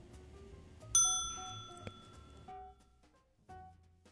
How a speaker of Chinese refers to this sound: 请小朋友们在听到“叮”的一声时，说出你的台词。